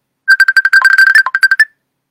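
A phone ringtone for an incoming call plays a quick, bright electronic melody of rapid tonal notes for about a second and a half, loud, then stops. No one speaks.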